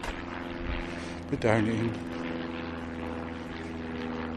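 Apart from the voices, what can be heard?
airplane flying overhead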